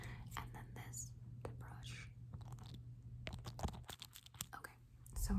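Soft scratchy bristle strokes of a brow brush brushing eyebrows, repeated in quick irregular sweeps, with whispering mixed in and a steady low hum underneath.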